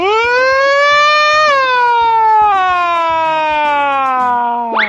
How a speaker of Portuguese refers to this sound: Que isso, cara? É, é, é, é a sirene de emergência. É sirene.